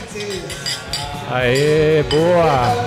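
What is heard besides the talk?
beer glasses clinking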